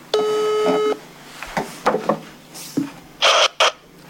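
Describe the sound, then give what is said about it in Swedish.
A single steady phone ringing tone sounds for about a second as a call is placed to a woman, followed by scattered clicks and two short bursts of hissing noise, with no one speaking. “Eh, så jag tänkte att jag ringer henne och frågar lite mer.”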